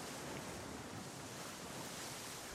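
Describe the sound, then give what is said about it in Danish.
A steady wash of surf with wind blowing across it, a continuous broad roar without distinct breaks, fairly soft and with no voices. “Jeg elsker havet.”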